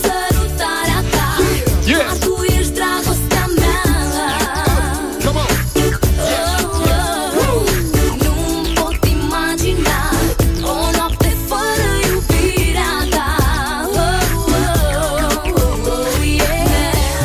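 An upbeat Romanian pop song, about 18 or 19 years old, plays loudly and continuously, with a steady beat and a melodic female vocal line carried over dense synth and drum backing, with no one talking over it.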